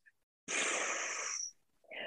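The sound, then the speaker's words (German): A single steady, breathy hiss lasting about a second. During a breathing exercise, a person with one hand on the belly and one on the back exhales all their air on 'pü' through pursed lips, like a tire with a small hole. Fairly loud, then abruptly cut off. “Ja, und zwar auf Pü, ja, wie so ein äh, Reifen, der ein kleines Löchlein hat.”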